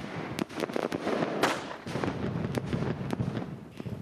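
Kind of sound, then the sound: sound effect, fireworks exploding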